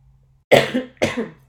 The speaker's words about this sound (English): So let me clear my throat.